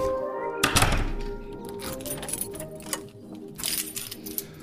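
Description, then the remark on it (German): A solid thunk followed by a few lighter metallic clinks and rustles, like a key being picked up and handled, with no talking. “So, ich greife jetzt nach dem Schlüssel.”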